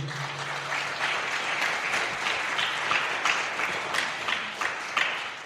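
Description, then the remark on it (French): A crowd applauds steadily for several seconds to congratulate young people on their talents, a dense, continuous patter of many hands clapping with no one speaking over it. “Eh ben, en tout cas, on peut les féliciter et les applaudir.”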